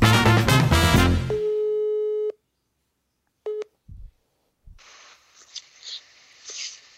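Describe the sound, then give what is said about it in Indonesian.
A burst of electronic phone tones opens as a phone call is placed to a guest, then a steady dialing tone holds before cutting off, followed by a short beep, a couple of soft thumps, and faint muffled line noise. “langsung aja kita telepon let's go”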